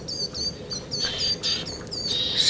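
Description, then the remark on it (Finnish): Several small birds, including tit species such as great tit, willow tit, crested tit and coal tit, along with a bullfinch, call in quick succession. High thin chirps (the coal tits) and short tweets overlap in a steady, busy stream, with wing sounds audible, over a soft background hiss with no talking. “tässä meidän tallenteessa on aika monta tiaislajia”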